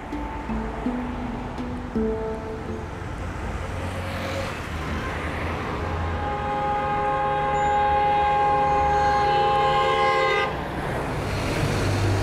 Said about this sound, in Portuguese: Eu tô aqui no meio da confusão do trânsito do Rio de Janeiro. Na verdade, esse som que você tá ouvindo podia ser gravado em qualquer lugar da cidade, né? Mas eu tô aqui na Rua Jardim Botânico, na esquina com a Rua Doutor Neves da Rocha